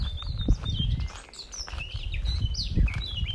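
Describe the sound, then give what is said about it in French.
A bird sings in a series of bright, quick chirps and trills, layered over a steady outdoor background with low rustling and soft thuds of footsteps on a path among very tall trees. “Et tu pourras entendre cet oiseau.”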